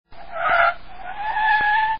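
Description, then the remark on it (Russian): A racing car skids on a sharp turn with a high, tonal tire squeal that swells, briefly eases, then shrieks again steadily before cutting off abruptly as it loses control and leaves the road, loud with no voices. “Но когда он попал на крутой поворот, то потерял контроль над машиной и слетел с дороги.”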